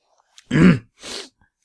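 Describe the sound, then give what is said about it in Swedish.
Two harsh, forceful, loud bursts of a person coughing hard and clearing the throat, the first heavier and rougher than the second, with brief silence between them and no talking. “Du måste hosta till ordentligt hårt nu.”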